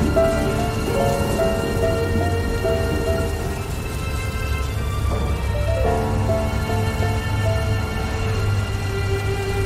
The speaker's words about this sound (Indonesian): Lama kemudian, cuaca di tengah laut yang tadinya cerah mendadak berubah menjadi gelap. Hujan tiba-tiba turun dengan teramat lebatnya.